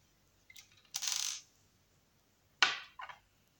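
A glass ampoule being gripped firmly and snapped open by hand: bright cracks and glassy clinks, a small tick then a sharp break, followed by another crisp snap and a lighter clink, with no talking.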